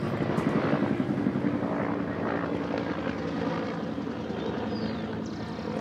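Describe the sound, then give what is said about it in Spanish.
A white and green police helicopter passes overhead, its steady rotor chop and engine drone filling the scene at a fairly loud, constant level for several seconds with no talking. “Es un helicóptero de la policía, blanco y verde.”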